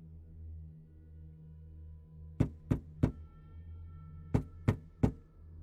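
Two sets of three sharp knocks, evenly spaced, separated by a short pause, over a low steady hum with no voices.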